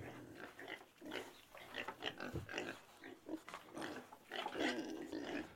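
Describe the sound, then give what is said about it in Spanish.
Pigs grunting and snorting continuously, a dense overlapping chorus of rough, nasal grunts from several animals, fairly loud, with no talking. “Dame, dame los cerdos.”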